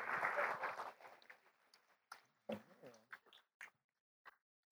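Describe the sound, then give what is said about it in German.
A burst of audience applause for three volunteers coming up onto the stage, dense and loud for about a second, then thinning into scattered individual claps and small noises that fade out. “Herzlichen Applaus für die drei.”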